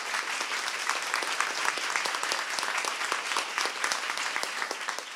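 Steady audience applause fills the whole stretch, a dense rattle of many hands clapping at an even level with no voices breaking through.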